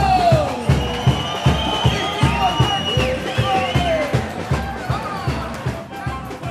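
A crowd at a festival in Santos, Brazil, cheers and applauds over a steady, pounding rhythmic beat, with shouting voices and high whistle-like calls rising above the din throughout.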